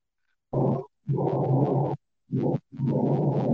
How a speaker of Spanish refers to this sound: Todavía está corriendo muebles mueble